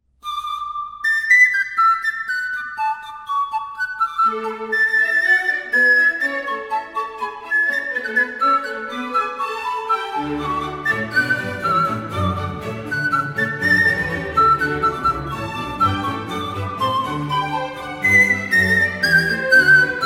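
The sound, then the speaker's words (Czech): A breathy pan flute, a row of reed, bamboo or wooden pipes blown across their tops, plays a flowing melody, starting alone in the high register, then joined by lower lines and, about halfway through, a fuller accompaniment underneath. “Jednou z nich je panova flétna. Několik rákosových, bambusových nebo dřevěných píšťalek sestavených do jedné řady.”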